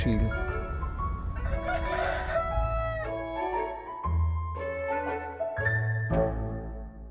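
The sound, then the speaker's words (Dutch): Roosters crow over and over, loud rising-and-falling cock-a-doodle-doo calls overlapping one another, with a low rumbling hum underneath throughout. “Dat, dat is de Champions League onder hanengevecht.”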